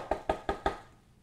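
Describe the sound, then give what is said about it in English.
Four firm knocks on the door of a house in an even, quick rhythm, clear, with a short ring-out after the last one and no voices. “But someone knocks on the door.”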